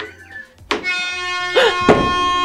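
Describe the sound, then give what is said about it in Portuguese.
A loud game horn blares suddenly and holds a steady, buzzy tone for nearly two seconds, while brief excited voices call out over it. “Tocou a buzina, corre,”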